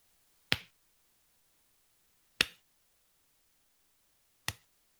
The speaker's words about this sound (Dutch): En terwijl jullie nog dichter komen, zien jullie van wat dat geluid komt. Jullie zien een mannelijke gnoom, een oude mannelijke gnoom, hout hakken.